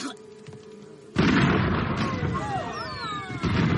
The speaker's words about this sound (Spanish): Fuera estallan fuegos artificiales. Los miran a través de los ventanales. ¿Por qué son tan atronadores?